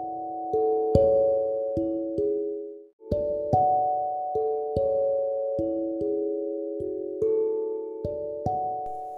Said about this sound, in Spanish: Las campanas del templo señalaron las cuatro de la tarde